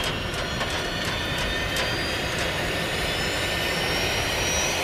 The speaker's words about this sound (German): Es ist hier sehr laut weil der Kapitän die Düsen der Hypo-Hyperspace angeschaltet hat.